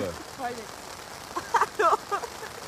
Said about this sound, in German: Weißt du, drei Tage war es trocken. Wenn wir abbauen wollen, regnet es wie aus Kübeln.